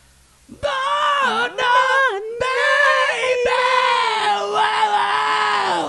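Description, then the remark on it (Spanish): A female rock singer lets out a loud, raw scream, held and wavering for several seconds with a couple of brief breaks, dominant with little else behind it. “Unos gritos que pegaba.”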